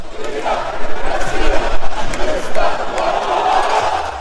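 A large stadium crowd chants and roars from the stands, a dense, sustained wall of voices with rhythmic swells, loud and continuous throughout.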